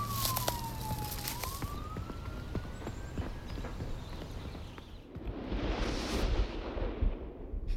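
A police siren wails over street noise as a car speeds away, followed by a loud rush of engine and road noise that swells and then drops off.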